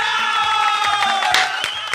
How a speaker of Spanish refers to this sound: Le damos antes un aplauso para él, por favor.